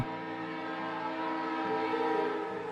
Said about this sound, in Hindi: कुछ देर के बाद हॉर्न मारते हुए वो ट्रेन स्टेशन पर आई